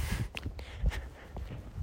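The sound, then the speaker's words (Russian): Footsteps while walking: a steady series of soft thuds and scuffs at a relaxed pace, with no voices over them. “И пойду дальше идти свои 8 тысяч шагов.”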